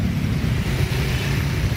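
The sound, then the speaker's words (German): Motor scooter traffic on the 30-kilometre road from Ubud to Changu drones on steadily, a dense low engine rumble with a grainy hiss above it, holding an even loudness throughout with no voices. “Für Kumang aber ist der Sound der Roller absolute Erleichterung.”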